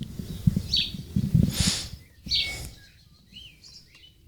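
Birds sing and chirp outdoors in a garden on 3 June 2017, short bright calls coming in bursts over a low, rumbling background. No one speaks.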